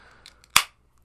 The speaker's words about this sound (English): Ooh, crack a cold one.